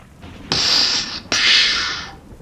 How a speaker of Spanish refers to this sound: llovía. Caían las gotas en el pavimento.